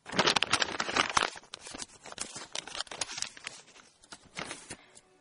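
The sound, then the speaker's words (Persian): Paper being folded into a paper airplane, with crisp crinkles and creasing rustles in irregular bursts, loudest at the start, with no talking. “من الان دارم موشک کاغذی درست میکنم یعنی من درست نمیکنم کودک درونم درست میکنه”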